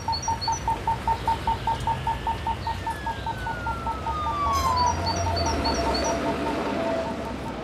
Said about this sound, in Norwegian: Jeg elsker å våkne til fuglesang.